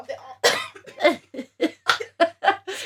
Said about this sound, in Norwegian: Unnskyld meg, nå er vi helt gærne når du begynner å hoste etter å ha chugga for mye vann.